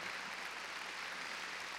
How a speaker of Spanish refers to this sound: Mire, a ver, démosle palmas fuertes a nuestro Señor esta noche.